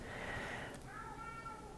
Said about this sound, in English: oh yeah, Smokey's definitely got something. I'm almost done, Smokey! what is he doing? He's got a weird meow too.